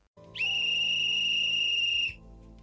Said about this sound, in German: Das war er, der Abpfiff der Halbzeit.